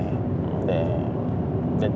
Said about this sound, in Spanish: Pero bien, es cierto que, por ejemplo, hoy, pues ahora que estoy grabando esto en el coche